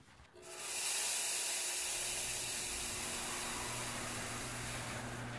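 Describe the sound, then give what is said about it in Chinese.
After a brief quiet moment, a large handful of chili peppers is poured into a hot wok for stir-frying with a sudden loud whoosh, settling into a steady, hissing sizzle with a faint low hum underneath. No one speaks. “大把的辣椒被倒入炒锅里，瞬间“哗”的一声，辣香四溢。”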